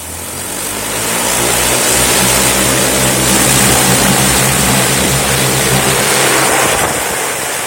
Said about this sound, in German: So klingt es, wenn diese Drohne abhebt. Noch wird getestet, aber bald schon wird die Utopie Realität sein und Drohnen made in Austria zuerst den Chinesen und irgendwann auch uns um die Ohren fliegen.